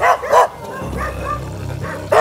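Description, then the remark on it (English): Cadaver dogs, trained to find human remains, bark sharply and loudly while searching a backyard: two quick barks at the start, then a pause with a low rumbling hum, and one more bark at the end. “they brought in a team of cadaver dogs, dogs trained to find human remains.”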